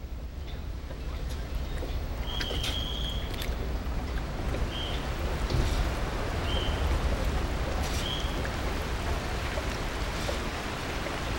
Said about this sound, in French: Nous prenons le bateau pour traverser le fleuve le Danube.